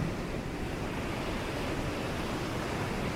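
A steady, continuous wash of ocean surf, like waves rolling onto a beach at night, with a dense hissing roar at an even level throughout and no voices.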